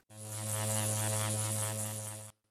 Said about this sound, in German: Das passte recht gut zum gemütlichen Brummen der Hummeln, die auf den Wiesen mit den ersten Blüten unterwegs waren.